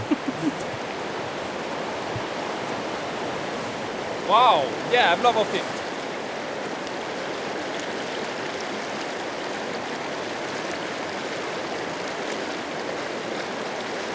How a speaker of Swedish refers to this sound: Så kom, man går liksom genom skogen och så är det lite snårskog och sen kommer man ut mot där forsen öppnar upp sig och så är det en massa stenar och mm. forsande vatten och så. Lyssna här får du höra.